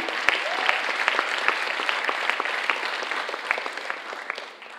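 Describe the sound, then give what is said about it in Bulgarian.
A church audience claps to give glory to God for about five seconds, a dense patter of many hands with sharp individual claps popping out, holding fairly even loudness throughout. “О, хайде, дай му истинска слава, не дай да ръкопляскаш като че си...”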